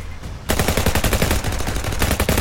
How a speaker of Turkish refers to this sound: Yüzlerce merminin harcandığı taramalı tüfek ateşiyle sadece birkaç emu kuşu öldürülebilmişti.